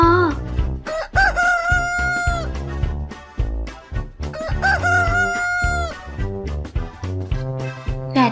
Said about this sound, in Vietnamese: thấy trời sáng gà gáy ó o đua nhau gà gáy gà gáy thật to ó ó ó ó